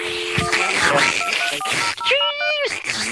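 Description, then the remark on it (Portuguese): A voice mimics a dial-up modem handshake connecting to the internet over a phone line: a run of beeping tones and screechy, hissing warbles, ending in a stretched, harmonic-rich whine, fairly loud. “Quando ele prolongava um pouquinho o chiado, a gente sabia que, que ia pegar.”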